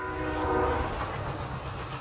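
A train clatters steadily along the tracks on a scenic railway trip out west, with a dense, continuous rumble, and a sustained horn tone sounds over it in the first second before fading. No voices.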